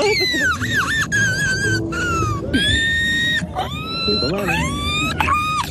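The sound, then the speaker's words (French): A man's voice imitates a seagull in a seagull-imitation contest, letting out a run of loud, high, wavering squawks and cries in quick succession, some rising and some falling in pitch, with a low background rumble throughout. “Le critère, c'est de savoir à peu près imiter la mouette.”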